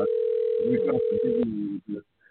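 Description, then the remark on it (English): A steady, single-pitched dial tone of an outgoing phone call hums for about a second and a half, then cuts off, with a person talking over it and a few brief muffled sounds afterward. “Uh, let's see if we connect.”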